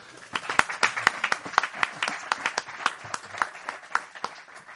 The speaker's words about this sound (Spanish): Pues muchísimas gracias, Salvador Más. Ha sido muy, muy interesante verlo funcionar. Un aplauso para Salvador.